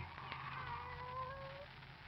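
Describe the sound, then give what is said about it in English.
A single drawn-out meow from Kitty, Barbara's pet cat, faint and gliding downward in pitch over a low background hum, with no one talking. “Oh. It's you, Kitty. Barbara's pet.”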